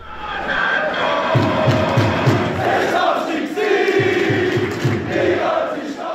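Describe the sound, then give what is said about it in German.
A large crowd of football fans chants in unison in a stadium, loud and sustained, with rhythmic bursts of clapping or drumbeats punctuating the roar of many voices. “Und Hymne ist eigentlich genau das richtige Stichwort, weil Hymnen werden ja im Fußballstadion auf und abgesungen. Genau wie x verschiedene Fanlieder.”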